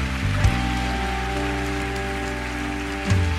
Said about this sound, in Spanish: Y en esa libertad hoy adoramos. Y en esa libertad hoy aplaudimos. Y en esa libertad hoy nos movemos.